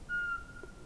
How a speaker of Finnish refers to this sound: Pihalta kuuluu rytmikäs, kaunis vihellys. Se toistuu satoja kertoja täydellisessä hiljaisuudessa. Mitä muita ääniä ei kuulu. Äänessä on Euroopan pienin pöllö, varpuspöllö, vain punatulkun kokoinen, palleromainen, pikkupeto vailla vertaa.